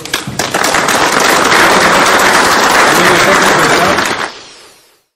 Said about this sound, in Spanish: Pues muchas gracias, un aplauso para todos.